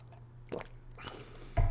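Quiet slurping and swallowing as someone takes a few small sips of water, with soft wet mouth sounds and a louder gulp at the end. No one speaks.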